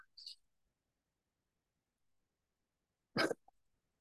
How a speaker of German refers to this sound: Ich muss mir mal die Nase putzen, Entschuldigung.